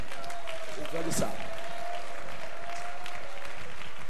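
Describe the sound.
A church audience claps for the Lord during a sermon in a steady, dense patter of many hands, with a man's voice speaking over the applause and a sustained tone humming underneath.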